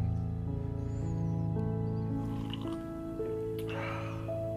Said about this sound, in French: Oui, c'est le temps de se prendre une... Euh, ça, de relaxer, hein, de prendre une petite camomille chaude. Je te verse ça,